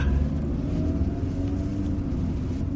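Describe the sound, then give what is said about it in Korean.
A steady low engine rumble holds evenly throughout, the smooth, quiet hum of a car idling with its engine already started, with no talking over it. “와, 이 시동이 걸려 있는지도 몰랐네요.”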